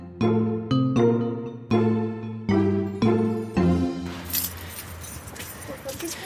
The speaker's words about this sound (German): holt den großen Schlüssel raus.